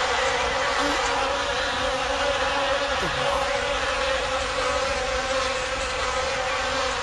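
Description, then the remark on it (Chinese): A swarm of bees rising up together, a rare event, buzzes without pause, a dense, layered drone of many wings holding a steady level throughout, with no voices over it. “蜜蜂结群而起，这是非常少见的事情。”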